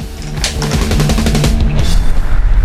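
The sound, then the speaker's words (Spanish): An electric fan blows straight into the microphone, producing a loud, steady, overwhelming roar of rumbling wind buffeting with choppy low thumps throughout, with no voices. “Te lo prendo si querés, vas a ver el ruidaje que hace.”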